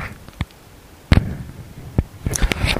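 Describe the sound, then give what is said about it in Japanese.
Keyboard typing clatter as someone briefly types text as a finger exercise: a few isolated, sharp key clacks spaced irregularly, then a quicker flurry of keystrokes toward the end, with no one talking. “今ちょっと、ちょっとだけカタカタやっておきます。指、指の運動です。”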